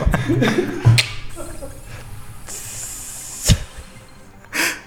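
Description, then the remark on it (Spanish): A beer can is eased open very slowly, letting out a drawn-out hiss of escaping gas broken by a few sharp metallic clicks and pops, with faint background murmuring. “Tardó dos minutos en abrir una cerveza.”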